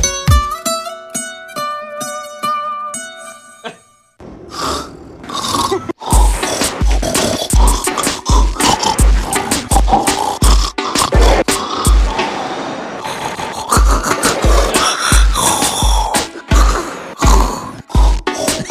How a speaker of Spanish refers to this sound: yo me quedo mejor con la versión de la mujer que grabó su esposo por cinco años roncando